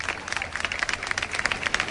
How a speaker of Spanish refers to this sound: El aplauso popular ante esta apertura de, de lo que viene siendo la carpa.